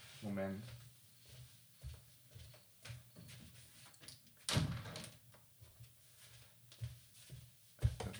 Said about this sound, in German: Äh, ne, ganz, kurz, ganz kurze Pause. Ich muss kurz ja? äh, die Tür zumachen.